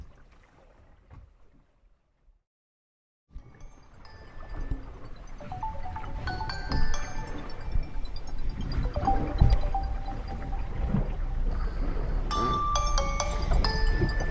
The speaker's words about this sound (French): c'est mon alarme. 23h50.